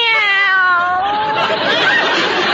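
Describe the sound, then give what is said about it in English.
A cat named Minerva gives a drawn-out, falling meow, loud, which fades into a rough, noisy stretch of background sound for the rest of the moment. “There's a good kitty. Come drink your milk out here.”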